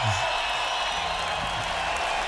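Steady applause for a guest praised for rebuilding a whole village, a dense, even wash of clapping that holds at a moderate level for a couple of seconds with no voices over it.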